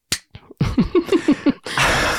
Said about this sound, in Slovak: A čo som urobil, treskol som si rukou po čele a chcem tým vyjadriť, že toto fakt myslíš vážne.